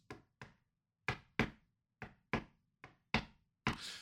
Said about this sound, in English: when he knocked on Roman's door to the beat of the Shield, and they showed that in the video package.